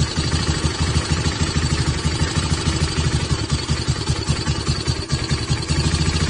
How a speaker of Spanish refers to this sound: Es una moto, ¿no?